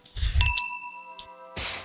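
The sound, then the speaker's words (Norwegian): Glasses clink together in a toast, a bright chime that rings on for about a second, with a softer tap partway through and some low rustling around it. “Skål. Skål.”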